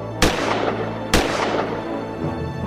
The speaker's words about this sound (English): Farmer ran to the window. He fired his gun. Bang! Bang!